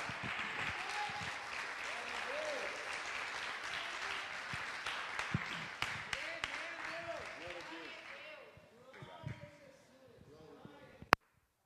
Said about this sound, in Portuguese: Nesses dias, em nome de Jesus, dá um forte aplauso ao Senhor, por favor.